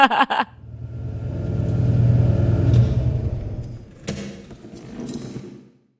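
car driving

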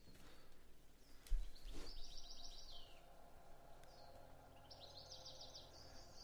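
birdsong

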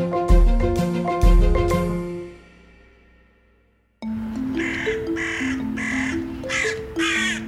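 carrion crow cawing

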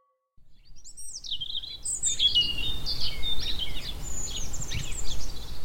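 spring birdsong

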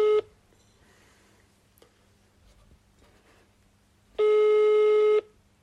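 telephone ringing tone

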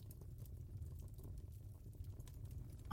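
crackling fire

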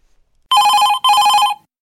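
telephone ringing

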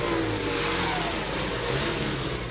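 car engine revving

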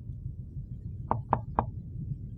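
knocking on a door

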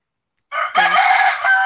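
rooster crowing

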